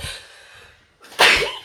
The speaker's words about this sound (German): Ich muss demnächst niesen.